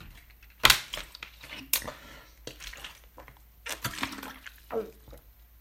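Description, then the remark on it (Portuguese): Someone drinks water: two sharp crinkly bursts like a plastic bottle being squeezed, then a run of soft gulping and liquid sounds, with no talking. “Preciso de água.”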